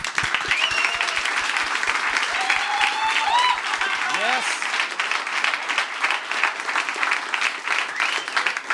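Loud, sustained applause from a crowd fills the whole stretch, dense and steady, with cheers and whoops rising over the clapping and a regular low thumping beat underneath for the first few seconds.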